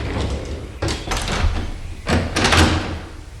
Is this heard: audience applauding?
no